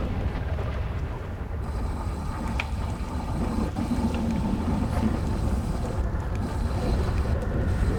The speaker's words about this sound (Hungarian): valakinél nagyon hangos a játék maga.